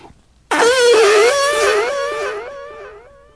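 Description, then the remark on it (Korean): A single long, loud fart sound effect standing for a husband's fart, with a buzzy, wobbling pitch that bursts in suddenly and slowly tapers off over a couple of seconds, with no one talking. “28년 결혼 생활을 하다 보니 그 시절 그 남자는 온데간데 없고 화와 짜증과 방귀만 뀌는 남편이 남았다.”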